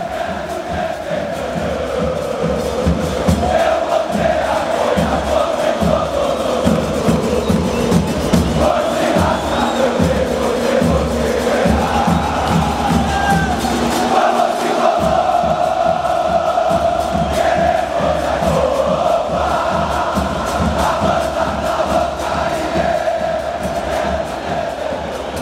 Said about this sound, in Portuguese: Sinalizadores, bandeiras, a banda da geral pulsando como nunca e o grito ensurdecedor de Grêmio cantado por 55 mil pessoas que ecoava por todos os lados.